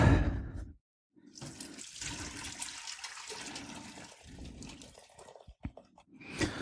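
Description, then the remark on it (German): Vegetable broth pours steadily for several seconds through a sieve into a container of about two liters, a broad rushing splash with brief pauses, fairly loud, with no talking. “Dann gießen wir das Ganze ab.”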